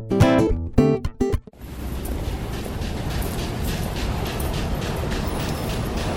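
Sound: train travelling on rails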